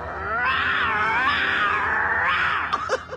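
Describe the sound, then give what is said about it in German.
A voice actor specialising in vocal special effects imitates a lion's roar in one long, loud, sustained growling cry that rises and falls in pitch, ending with a few short breathy bursts. “Als Experte für stimmliche Spezialeffekte hat er unter anderem die Löwengeräusche für Mufasa und Simba in König der Löwen erzeugt.”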